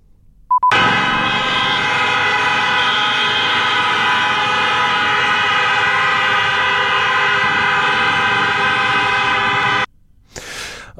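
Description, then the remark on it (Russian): Many car horns blare together at a street protest in Belarus in one loud, unbroken chorus for about nine seconds, then cut off abruptly, leaving a brief burst of noise. No one speaks. “Гудящие машины.”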